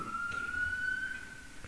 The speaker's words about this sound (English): The sirens, you know, we just hear a sound. And we, oh, it's just a disturbance to us. a very slight little disturbance.